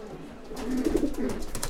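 A pigeon coos in a low, soft, throaty murmur that swells and rolls for about a second before fading, with faint background noise around it.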